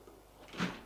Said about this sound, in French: La porte s'ouvre. Il voit entrer la mère de Gilles.